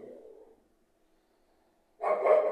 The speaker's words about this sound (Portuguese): Infelizmente o cachorro vai latir, porque esse cachorro ele late por tudo. Algo que me irrita.